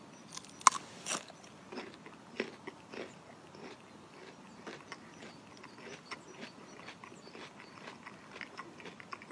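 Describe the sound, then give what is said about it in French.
Crisp bites into a raw vegetable, followed by steady crunchy chewing, a sharp snap near the start and then irregular crackling crunches continuing throughout with no talking. “doit craquer.”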